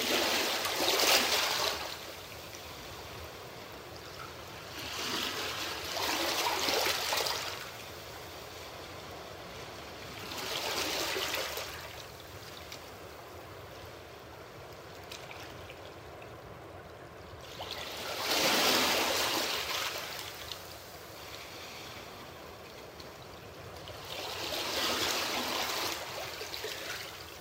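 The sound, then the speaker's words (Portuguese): Gentle waves lap against rock cliff walls, heard from atop the rocks at a deserted spot early in the morning, in soft recurring surges, about five swells rising and fading over a steady watery hiss, with no voices present. “Aqui, as ondas batem levemente contra os paredões, produzindo um som gostoso de escutar de cima das rochas.”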